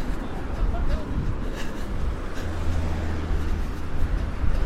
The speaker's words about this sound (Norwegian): Så kan du høre at trafikken plukker seg opp litt her nå.